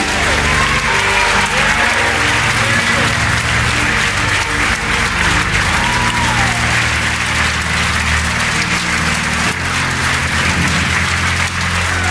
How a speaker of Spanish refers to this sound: Dale un fuerte aplauso al Señor. Aleluya. Dios. Amén. Ahora un fuerte aplauso al Señor. Amén.